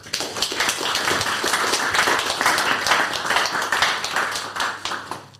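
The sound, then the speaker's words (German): Sustained applause from a group of people for a plea on behalf of a bird, dense overlapping hand claps filling the whole stretch at a steady, fairly loud level, without any talking. “Also, also ich finde, ähm, egal was jetzt noch kommt, dieses Plädoyer für diesen, ähm, für diesen Fliegendier oder für diesen Vogel hat erstmal einen richtig fetten Applaus verdient.”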